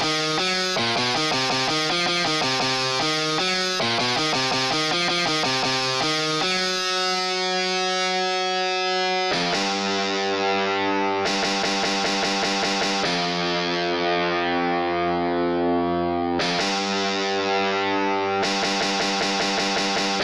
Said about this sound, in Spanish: de manipular los efectos artificiales de ecos y reverberaciones que convierten mi cutre espacio de creación en una iglesia maldita y mi recital sonoro en una misa negra no apta para obispos y cardíacos.